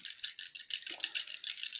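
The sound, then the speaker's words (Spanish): Several dice rattle steadily in quick, rhythmic bursts, as if shaken in a cup or hand, moderately loud, with no talking, as they are rolled for a game roll at difficulty 7. “Te da más dados, esto, No, Nada más.”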